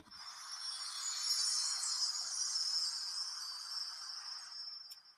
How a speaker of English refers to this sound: I'm gonna make some noise on this one right here, man. So we're gonna do some chimes.